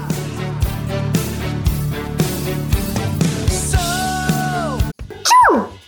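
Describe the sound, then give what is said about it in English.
Upbeat music with a steady beat plays, then cuts off, and a single loud, abrupt sneeze from someone fighting allergies bursts out, its voiced pitch sliding sharply downward. “Bless you.”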